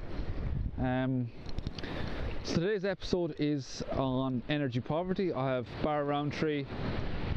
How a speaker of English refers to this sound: Today's intro comes from the Kingdom. You can hear the Kerry waves in the background, the Atlantic waves, I should say.